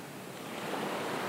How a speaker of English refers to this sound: Right, the sound of waves.